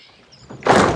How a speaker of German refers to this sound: Rums! Die Gartentür fällt mit einem lauten Krachen ins Schloss.